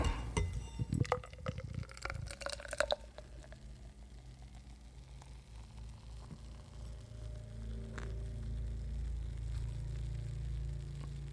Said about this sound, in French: Moi, je vais la verser dans un verre Schlitz.